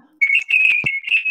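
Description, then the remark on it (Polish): A shrill, steady electronic beep sounds loud, holding almost continuously with a couple of brief breaks, while a few soft knocks and thumps occur underneath. “Dobra, to teraz jest chyba pika?”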